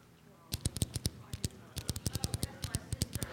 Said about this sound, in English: Clicking of the pens. How many of you are pen clickers?